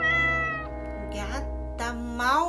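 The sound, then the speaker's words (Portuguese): A female cat meows in a long, drawn-out cry that wavers in pitch and swells again toward the end, rising into a plaintive, whiny tone. “Era a gata de Lucila.”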